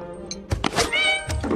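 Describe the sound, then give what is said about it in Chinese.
A cat named Xiaonuomi lets out a single drawn-out, high-pitched meow, preceded by a couple of soft thumps and bumps. No one speaks. “那只笨猫。”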